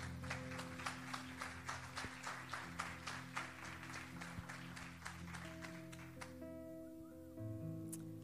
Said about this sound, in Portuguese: Aplauda ele, por favor.